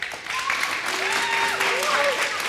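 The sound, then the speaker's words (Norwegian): An audience at Klæbu lower secondary school applauds steadily to vote for a song, a dense wash of clapping that holds for the whole stretch, with a few whistles and cheers rising briefly above it. “Skal vi høre om vi mindre eller mer applaus på det eneste jeg vil her”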